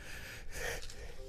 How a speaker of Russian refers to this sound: Будьте здоровы, вот я про это и говорю.